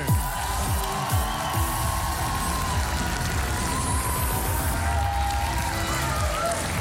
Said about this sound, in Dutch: Geef ze een groot applaus.